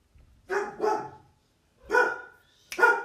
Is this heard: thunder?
no